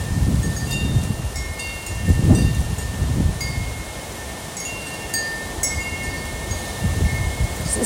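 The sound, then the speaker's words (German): Metal wind chimes tinkle close by with scattered, overlapping ringing tones, while gusts of wind rumble and buffet loudly underneath. The wind chime hangs a few meters from a tent beside a stone path, heard while walking along the path and standing next to it. “Da ist das Windspiel.”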